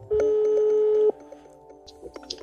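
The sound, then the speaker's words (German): A telephone ringback tone sounds once as a call is placed to a father-in-law: a steady loud electronic beep lasting about a second, followed by faint line noise and soft clicks as the call waits to connect. “ich rufe meinen Schwiegervater an”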